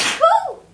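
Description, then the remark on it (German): A single sneeze: a sharp burst of breathy hiss followed by a short voiced "choo" that trails off quickly, with no talking. “Gesundheit, jetzt dachte ich, du fängst an zu weinen.”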